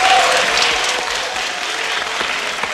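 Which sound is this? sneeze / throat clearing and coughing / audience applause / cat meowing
audience applause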